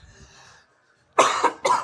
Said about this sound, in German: Äh, man hört, ihm ist es so gut ergangen, dass er ja. direkt nur noch am Husten ist. Ich bin ein bisschen krank, es tut mir leid.